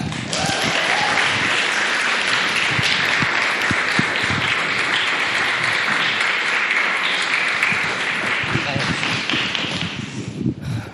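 An audience applauds steadily for about ten seconds as the next storyteller is introduced, a dense, continuous wash of many hands clapping at a fairly loud level, tapering slightly at the very end.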